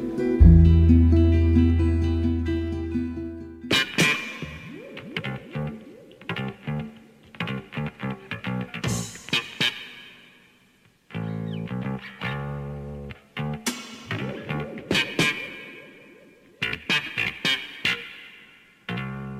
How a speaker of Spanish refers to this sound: Escuchábamos la segunda canción de ….